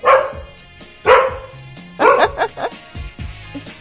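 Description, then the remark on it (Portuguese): A dog barks several times in close succession, the first few barks loud and sharp, followed by softer yips and whimpering sounds trailing off. “Ih, tia, deu bug no cachorro”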